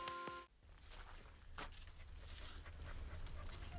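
A dog named Buster, on a smallholding in South Zealand, Denmark, pants steadily, its paws scuffing and stepping over a low rumble, after a brief high-pitched whine at the very start.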